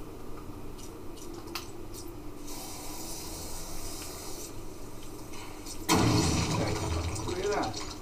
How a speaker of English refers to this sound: Yeah, probably another water pipe bursting.